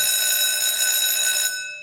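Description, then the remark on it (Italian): An electric school bell rings loudly and continuously with a bright, metallic buzz, then cuts off and its tone fades away, signalling the end of a class. No one speaks. “Suona la campanella, è ora di andare, tutta la classe si deve trasferire nel giardino centrale per una dimostrazione sportiva.”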